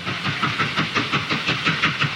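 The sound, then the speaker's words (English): A steam train departing and picking up speed chugs in a steady, rapid rhythm of puffing beats layered over a bright, continuous hiss, with no voices. “I listen to the train. The train's going off.”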